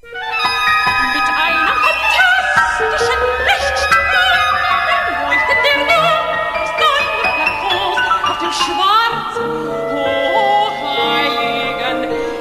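Contemporary classical music by Boulez, a living composer born in 1925, plays steadily: dense, overlapping instrumental tones with sharp high-pitched attacks and shifting, dissonant harmonies, loud throughout with no voices.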